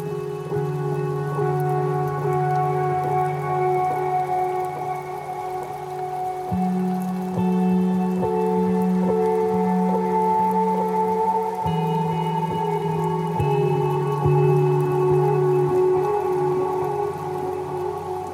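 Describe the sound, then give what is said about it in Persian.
Rain that has just begun falls steadily and continuously, a soft constant patter mixed with a loud, sustained low droning tone that shifts pitch now and then. No one speaks. “همون موقع بارون شروع به باریدن کرد.”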